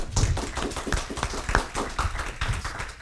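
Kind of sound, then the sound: crowd, audience round of applause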